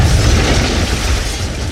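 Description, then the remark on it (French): A second loud explosion at a shell depot inside the Colombert factory, around 7:45 on a winter morning in 1920; its deep rumbling boom and crackling debris are sustained for the whole moment without fading, with no voices present. “Puis une seconde explosion.”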